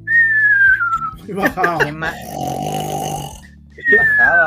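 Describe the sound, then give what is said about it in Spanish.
A voice imitates loud, cartoonish snoring: a falling whistle, then a long, rough, rattling snore, and another whistle rising again at the end. “A puro ronquido la weá Se levantaba como tres metros”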